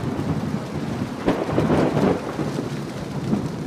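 Heavy rain pounds down steadily on roofs in Arizona in a dense, hissing wash while a deep roll of thunder swells midway through and rumbles off. No voices, just the storm.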